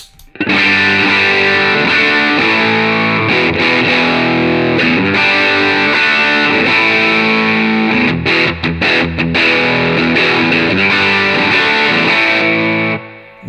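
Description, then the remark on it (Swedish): An electric guitar played through a Benson overdrive pedal stacked with a Nobels pedal, thick and saturated, strumming chords steadily for about thirteen seconds with brief choppy breaks near the middle, no voices. “Ja, och, och, eh, det är någonting som den här pedalen gör, framförallt ihop med en Single Gura, som gör att den bara känns...”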